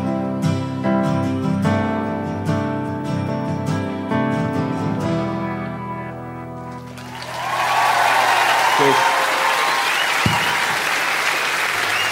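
A song's final sustained chords fade out, then a concert audience erupts into loud, steady applause, a dense crackle of many hands clapping that continues to the end.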